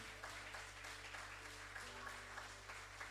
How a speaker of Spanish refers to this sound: Si va a aplaudir, apláudenle a Él.